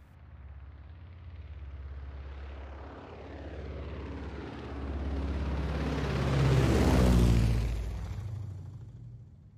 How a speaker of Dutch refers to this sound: U hoort het goed, luisteraars. Dit is een helikopter.